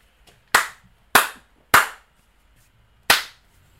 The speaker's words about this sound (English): You know what that was? That was a three slaps.